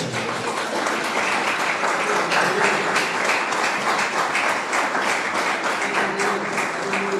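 A large group applauds steadily in praise of Almighty God, a dense wash of many overlapping claps holding at an even, loud level throughout without pause.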